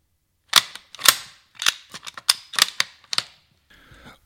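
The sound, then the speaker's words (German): A series of sharp metallic clicks and clacks from the bolt of an old World War II-era rifle being worked to load it, crisp, in quick uneven bursts, ending with a brief faint scrape. “So klingt es, wenn man ein altes Gewehr aus dem Zweiten Weltkrieg durchlädt.”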